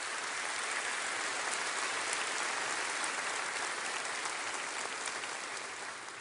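A crowd applauds steadily and loudly, dense clapping filling the space without a break for several seconds before easing slightly at the end; the audience applauds Jesus at a pastor's call during a sermon.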